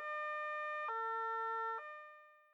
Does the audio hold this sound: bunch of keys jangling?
no